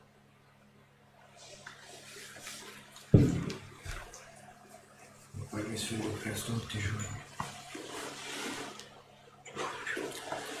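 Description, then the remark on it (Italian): Water runs and splashes in a steady, fairly loud gush after a sudden burst, with a person speaking briefly over it. “È tutta acqua questa, vero?”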